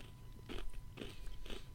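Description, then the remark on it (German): Three crisp, crunchy bites into a biscuit, evenly spaced about half a second apart, with no talking, followed by chewing. “Ich esse hier parallel so einen Knusperkeks.”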